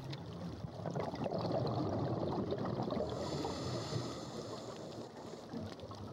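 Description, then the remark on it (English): A scuba diver with a regulator in the mouth leaps off a boat into the water and lets the air out of the buoyancy compensator, followed by steady underwater bubbling and rushing water that fills the whole stretch at an even, fairly loud level, with no voices. “I put my regulator in my mouth so I can breathe and leap off the boat. I let the air out of my buoyancy compensator, and then I am under.”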